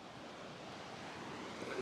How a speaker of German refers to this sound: Das heißt, ja, das stimmt, wir kriegen Flut.